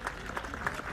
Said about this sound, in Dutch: So she'll make her way onto the field of play and gets a big round of applause from the crowd here in Berlin. And you can hear the cheers.